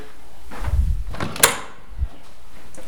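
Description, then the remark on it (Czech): A few mechanical clunks and a sharp click as a latch is released and a hinged mirror panel beside a large mirrored door swings open, with a soft thud at the end and no talking. “odepnout a vlastně vytvořit si pro dámu na prohlížení se a strojení eh, vlastně takový kout s trojící zrcadel, které když si na sebe nasměrujeme, tak se vidíme krásně ze, ze všech stran.”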